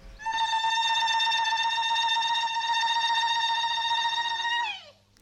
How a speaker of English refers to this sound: What did you make of that? What's going on with the voice there and that ululation? And do you call it singing or screaming?